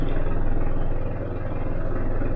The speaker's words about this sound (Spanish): De verdad, ¿alguien me puede explicar qué hacía un helicóptero a menos de 10 metros de mi casa? Que me iba, a aparcar en el patio eh, el, hombre ese.